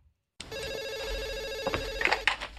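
A telephone rings in Monica's apartment as Chandler calls from an ATM vestibule: a bright, warbling electronic ring that holds steady for about two seconds, then cuts off amid a few soft clicks and rustles.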